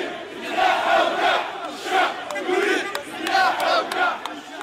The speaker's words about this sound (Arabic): صحيح في اللحظة التي كنا فيها في ساحة أول مايو بالعاصمة الجزائرية بعد صلاة الجمعة رأيت آلاف الجزائريين أنا شخصيا استغربت من أين جاء كل هؤلاء يعني تجمعوا كانت هناك أصوات ترتفع وحناجر تردد شعارات قوية جدا